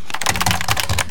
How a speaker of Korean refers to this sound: 키보드 소리예요.